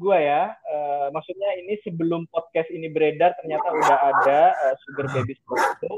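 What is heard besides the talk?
dog barking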